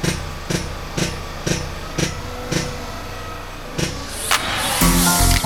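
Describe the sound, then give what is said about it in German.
A drilling rig runs at a groundwater well with a steady low rumble, punctuated by sharp rhythmic knocks about twice a second, before a louder rush of hissing, grinding noise swells at the end. “Ich beaufsichtige jetzt hier noch einen Moment den Bohrer.”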